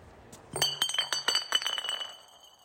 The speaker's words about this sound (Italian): Lo facciamo con il suono delle bottiglie degli ubriachi sì. di Punkstrasse.